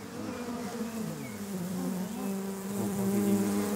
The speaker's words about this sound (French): propose aux touristes une rencontre piquante avec l'abeille noire, une espèce en voie d'extinction sur le continent.